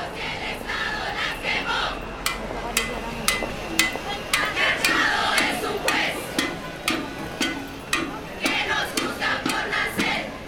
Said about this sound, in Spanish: Las niñas, jóvenes y mujeres reunidas se mueven al ritmo de una canción que gritan con fuerza una canción que denuncia los abusos que sufren las mujeres cada día y que señalan directamente a las instituciones que no responden.